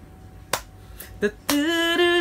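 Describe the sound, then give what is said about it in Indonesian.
Sharp hand claps land in a steady beat, about four in two seconds, as rhythm practice for singing, and a sustained pitched tone, like a sung or played note, starts with the last clap and holds. “Kalian tinggal cuma tepuk-tepuk tangan kok.”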